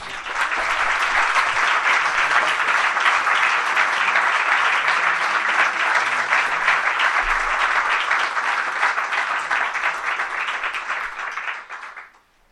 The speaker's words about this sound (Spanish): Son unos artistas consagrados. Quiero por favor pedirles nuevamente un aplauso para ellos.